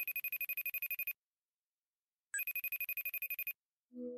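An outgoing call's ringing tone: two rapid, trilling electronic rings about a second each, separated by a pause, clear and fairly loud, followed by a brief low murmur as the line picks up.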